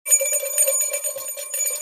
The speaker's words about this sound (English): It's a one bell Thursday. That's it. No two bells, just one bell. That's what we're doing.